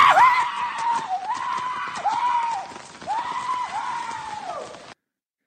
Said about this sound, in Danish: Det her det er en australsk landmand fra New South Wales. Han render rundt stort set splitter nøgen øh, i regnen med sin cowboyhat øh, og jubler